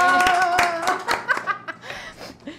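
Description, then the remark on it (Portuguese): A brief round of hand clapping, sharp claps in a quick uneven rhythm that fade toward the end, with laughter and voices mixed in at the start. “Eu quero uma salva de palmas pra a que seguiu é. o roteiro.”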